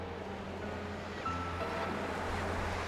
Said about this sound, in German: Das Rauschen des wild gewordenen Wassers schluckt jeden meiner verzweifelten Laute. Die vom Wind getragenen Spitzen der Schaumkronen verfärben sich langsam rot.